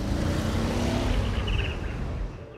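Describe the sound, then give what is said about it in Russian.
A car engine rumbles loudly, a steady low roar that eases off slightly toward the end as the vehicle pulls away. No one speaks. “тихонько подкрался к ней, накрыл ее своей шинелькой и посадил в свою машину.”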